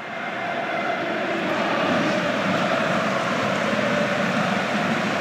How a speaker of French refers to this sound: Ça saute, virage sud, ça applaudit, virage nord.